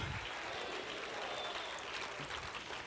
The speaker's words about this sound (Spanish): Si le va a dar el aplauso, dáselo bien al Señor.